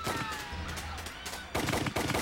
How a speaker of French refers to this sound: Lors de la fusillade par les policiers, les Panthers étaient allés se réfugier dans une des chambres à coucher